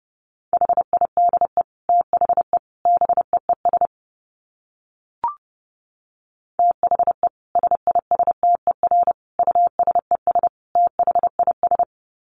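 Fast Morse code at 30 words per minute, sent as a steady mid-pitched beep, keyed in rapid short and long pulses, in two bursts separated by a brief pause with a single faint click.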